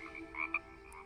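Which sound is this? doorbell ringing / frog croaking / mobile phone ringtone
frog croaking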